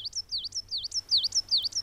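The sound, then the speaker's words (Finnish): A songbird repeats the same high, sweeping whistled phrase over and over in quick succession, each note dipping and rising in pitch, clear and fairly loud with a faint low hum beneath. “Jotenkin mun korvaan toi on vityy, vityy, vityy, no, vityy.”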